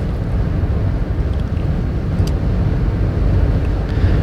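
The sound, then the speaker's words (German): Steady, loud low-frequency rumble of a car's interior while driving, a continuous road and engine drone with a faint hiss of wind, no voices, holding constant throughout; the navigation system shows 26 minutes and 36 kilometres still to drive. “Jetzt sind es auf jeden Fall nur noch 26 Minuten, sagt mir mein intelligentes Fahrtleitsystem. Und 36 Kilometer.”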